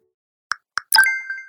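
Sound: text message notification tone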